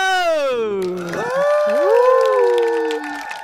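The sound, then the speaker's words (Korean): An audience at MBC Radio's idol music show Idol Radio cheers loudly for the hosts for several seconds. Sustained high-pitched screams rise and slide over a steady wash of applause-like noise. “네, 여러분의 따뜻하고 힘찬 응원 감사드리고요.”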